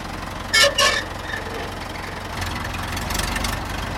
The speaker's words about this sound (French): Je reste dans le brouhaha comme ça. Ça dépend des tracteurs, c'est un vieux tracteur.